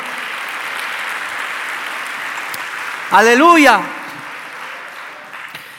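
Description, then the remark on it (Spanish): An audience claps in steady, sustained applause for Christ; partway through, a single voice calls out a drawn-out exclamation over it, and the clapping continues, gradually fading. “Dale un aplauso a Cristo, a su nombre, gloria.”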